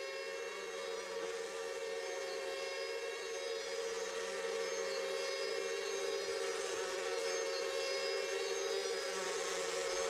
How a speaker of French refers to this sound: Il n'est donc pas surprenant d'y entendre les bruissements de mouches.